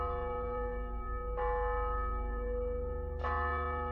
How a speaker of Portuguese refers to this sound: Será que, será que é o sino da igreja, velho? A igreja deve estar tá por perto, então, né, cara?